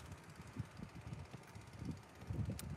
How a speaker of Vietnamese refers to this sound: gió rất là mát đấy